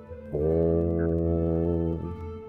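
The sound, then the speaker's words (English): A loud, low blast of horns sounds from about half a second in, holding steady for roughly a second and a half before cutting off, its deep tone echoing through a chamber. “And as she takes a step away from the table, the silence hits followed by the loud, low noise of the horns”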